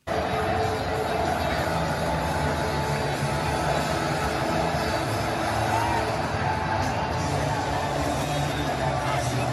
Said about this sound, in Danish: okay, det her det er, øh, hvis du, når du har været på stadion, så er der altid øh, efter kampen, så bliver sat musik på.